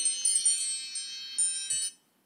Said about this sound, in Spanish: esa fue la alarma para decir que ya habíamos llegado a los 45 minutos. Em, no sé, la verdad, porque creo que la puse, no, no sé cuánto llevaremos.